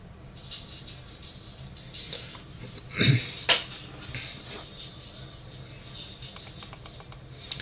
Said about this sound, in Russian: Я как понимаю, в этих наушниках э, надо два раза стукнуть по наушнику, двойной тап, и включится Siri у нас, да?